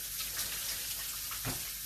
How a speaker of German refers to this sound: So, Hände waschen.